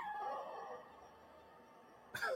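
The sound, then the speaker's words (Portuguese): A dog, Cacau, whines with a high, wavering tone, goes quiet, then lets out a single sharp, loud bark right at the end. No one speaks. “Sei que a Cacau incorporou o cão aqui agora, meu pai.”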